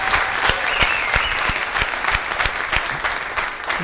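Loud, sustained applause from an audience welcoming the guest Daki Savic, a dense wash of many hands clapping steadily with a few sharper individual claps standing out, continuing throughout without any talking.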